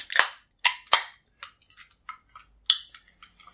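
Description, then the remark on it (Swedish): A cork pops from a limited-edition, snowflake-decorated bottle of an apple-flavoured drink: a few sharp, bright pops in quick succession, followed by softer clicks and rattles. No one speaks. “Då, då korkar vi upp.”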